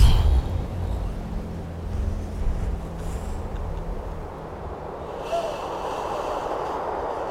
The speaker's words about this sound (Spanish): escuchamos el viento. Me encanta. Es precioso. Es, precioso.